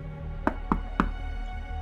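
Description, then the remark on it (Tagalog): Three sharp knocks on a hotel room door in quick, slightly uneven succession, distinct, with a low steady hum underneath and no one speaking. “May kumakatok na naman.”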